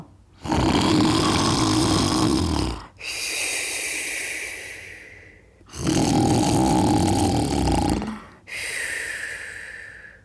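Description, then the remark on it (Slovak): Deep, heavy snoring of a sleeping wolf lying under a tree, two full breaths: a loud rattling, rumbling inhale followed each time by a softer, high whistling exhale, with no talking. “Ale že už bol nažratý a ťažký, nechal hľadanie tak – odtrepal sa do hory, skydol sa pod prvý strom a v tej chvíli aj zaspal.”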